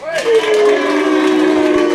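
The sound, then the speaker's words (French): A crowd lets out a loud, sustained cheer for Seth Rollins in an applause vote on who wins the men's Chamber match, rising and then holding steady for a couple of seconds, with a faint wash of clapping underneath. “qui gagne le Chamber masculin par applaudissement Seth Rollins?”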